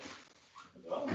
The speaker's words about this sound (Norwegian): Det er hunden vår, da.